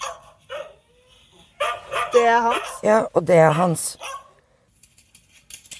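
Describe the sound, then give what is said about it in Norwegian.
Dachshunds on a video shown by a dachshund breeder, one of them Jonny Vassbakk's dog, bark in short, scattered yaps, some at the start and fainter ones near the end, while two people exchange a few words over them. “Og en av hundene på videoen som hun viser fram, er Jonny Vassbakk sin.”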